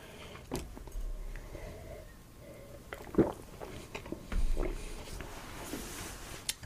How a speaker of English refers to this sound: Checker Bohemian? They're calling this a Czech style pilsner. Are they now? Yes. No. Let me take another sip. Mm.